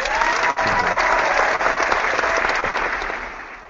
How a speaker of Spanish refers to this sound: Bueno, un aplauso a todos estos ingeniosos tuiteros.